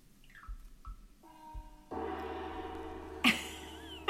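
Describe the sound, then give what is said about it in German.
Far-Eastern style music like that played at a massage: a few soft, water-like drips plink at the start, then a ringing tone sets in and a big gong swells up, its shimmering resonance hanging and humming to the end. “Man denkt erst, es tropft und dann auf einmal kommt der krasse Gong.”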